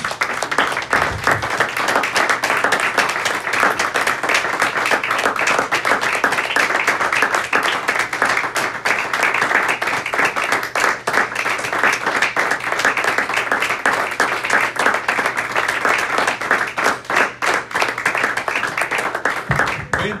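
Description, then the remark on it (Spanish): A church audience applauds steadily for about twenty seconds, giving applause to the Lord, dense overlapping claps at a loud, even level, with a low hum running underneath. “Le damos ese aplauso al Señor, hermanos.”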